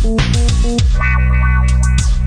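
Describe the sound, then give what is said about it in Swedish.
A loud, heavily distorted electronic beat with a thick bass and buzzing synth tones, punchy hits landing in a steady rhythm, with no voices. “Det låter som en loading screen till ett tv-spel, typ GTA GTA 2”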